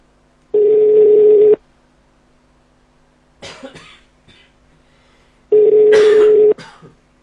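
A phone call is placed to connect a caller during a show's Mac segment: two steady, buzzing ringback tones about a second each, separated by a long pause, with a few short rough throat-clearing or cough-like noises in between and after.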